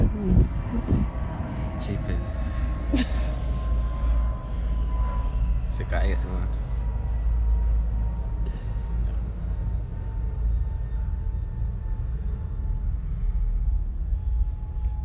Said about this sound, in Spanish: Espérate que pase el avión, por favor. si no, no van a escuchar.